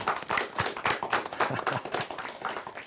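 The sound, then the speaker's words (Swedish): Applause from a group, a dense patter of many hands clapping steadily throughout, fairly loud with no voices standing out. The applause greets the Vikingaåsen team on the quiz show Kunskapskuppen. “En applåd tycker jag.”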